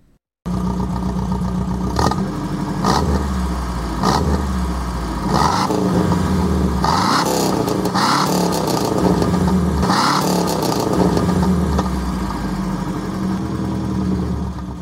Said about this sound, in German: Klingt irgendwie sehr traurig, deshalb hören wir jetzt lieber mal den Saab 96 V4 zu, denn der klingt ziemlich gut.